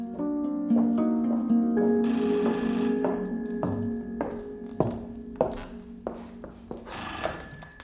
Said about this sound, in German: Und jetzt klingelt hier bei Gila das Telefon.